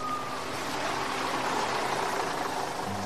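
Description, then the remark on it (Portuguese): A large bus engine idles with a steady, loud rumbling hum and a broad hiss of street noise, unchanging for a few seconds with no voices. “Um ônibus estava vindo.”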